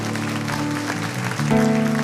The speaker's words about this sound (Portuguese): Será que você pode dar mais um aplauso ao Senhor?